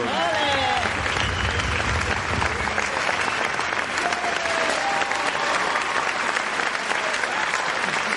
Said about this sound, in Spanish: grande, grande y esos aplausos para vosotros.